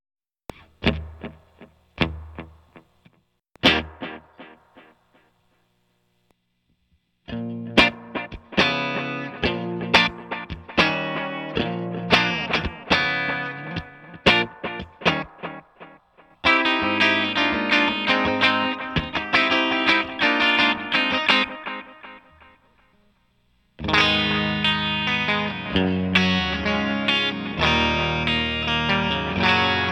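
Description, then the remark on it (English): Electric guitar run through a Boss Space Echo pedal's reverb: sparse plucked notes, then fuller chords and phrases, each with a lingering ambient tail. No one speaks. “Such a little bit goes such a long way of that reverb.”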